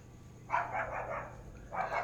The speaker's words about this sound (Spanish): Él, se están peleando los perros. Ahí está también. Sí, aquí, acá está fuera, está, fuerte la pelea.